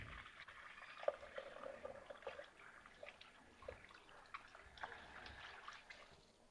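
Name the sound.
tap water running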